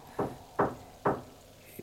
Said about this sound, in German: Ich höre doch was. Der Wind muss es sein. Irgendwas rattert im Wind. Die Tür, die Tür geht auf.